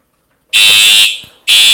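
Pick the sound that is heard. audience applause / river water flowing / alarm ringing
alarm ringing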